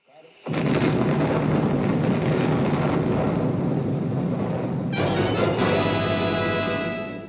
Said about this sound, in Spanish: Hay una explosión, y ahí se explica cuál es el objetivo del juego.